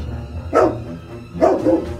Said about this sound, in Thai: เจ้าไก่ตง ใช้อุบายหลอกโดยไม่คิดไตรตรอง เจ้าสุนัขรีเปิดปากเพื่อตะโกนทันที